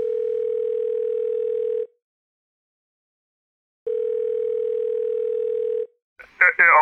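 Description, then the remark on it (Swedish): Two long, steady telephone ringback tones of an outgoing call, each about two seconds with a pause between, heard clearly; the second is cut short as a man answers and starts speaking. “Ja, nu ser man vad han svarar.”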